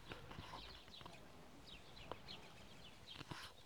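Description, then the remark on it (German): Faint bird chirps come in scattered short bursts over quiet outdoor ambience, heard through the open window of a van parked at a heavily watered Airbnb site in Fuerteventura, mixed with a few soft clicks and taps; nobody speaks. “Ich bin gerade auch in meinem Van hier in Forteventura. Äh, also ich sitze gerade in meinem Bett, habe das Fenster offen und gucke hier schön raus. Vielleicht hört man ein bisschen die Vögel.”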